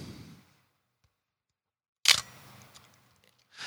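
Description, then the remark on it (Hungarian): A single sharp mechanical click of a film camera shutter firing, loud, followed by a brief rattling mechanical tail; quiet before and after, with faint shuffling at the start and end. “Majd elsütötted.”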